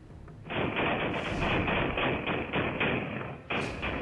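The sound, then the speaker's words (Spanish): Repeated gunshots ring out as four men fire repeatedly at a house, in a dense, rapid volley of loud overlapping bangs that runs for over three seconds, briefly dips, then resumes just as loudly. No voices are heard. “Los sujetos avanzan junto con el coche y finalmente, cuatro de ellos comienzan a disparar en repetidas ocasiones.”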